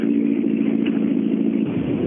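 A rally car engine roars at full speed on a long straight to the finish, a loud, steady high-revving drone held throughout with no pause and no voices.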